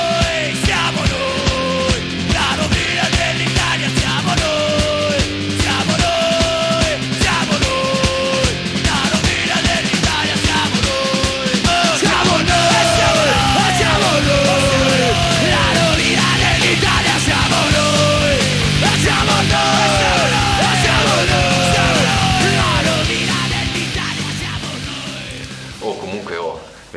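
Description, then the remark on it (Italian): A loud, busy opening theme tune of a show plays continuously, with excited voices shouting and singing along over the music before it fades out near the end. “questa è la sigla, vai!”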